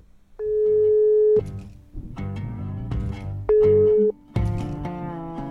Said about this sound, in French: Donc là, il est, il est 18h et on s'est donné rendez-vous au téléphone et donc on va l'appeler tout de suite.